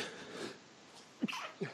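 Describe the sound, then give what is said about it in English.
A quick, muffled sneeze breaks a quiet stretch, coming as two short bursts close together, fairly soft, with faint background hiss and no talking. “Just had a sneeze there.”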